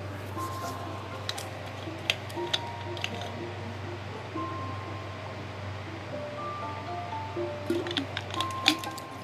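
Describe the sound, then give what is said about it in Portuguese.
Someone drinking water: soft swallowing and small wet clicks scattered over a steady low hum, quiet and unhurried, with a few gulps near the end and no talking. “Peraí, deixa eu beber uma água rapidinho aqui.”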